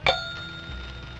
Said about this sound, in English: But if you change your mind, all you have to do is ring this bell.